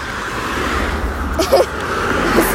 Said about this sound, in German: fünf Autos hintereinander.